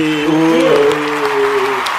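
A crowd applauds with steady, dense clapping that carries loudly through the whole two seconds, with a sustained low tonal hum running underneath.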